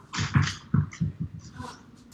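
A dog's toy ball bounces on a hard floor, a run of five or six moderately loud thuds that come quickly and then fade, followed by quieter rustling.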